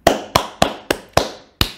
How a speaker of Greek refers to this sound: χειροκρότημα